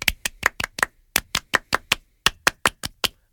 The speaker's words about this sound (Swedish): Ja, men vi kan väl ge honom en liten fransk applåd. Un, deux, trois!